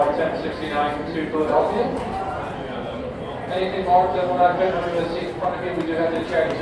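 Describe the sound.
A boarding announcement for a flight to Philadelphia plays over an airport loudspeaker, one voice speaking steadily and echoing at moderate volume for several seconds.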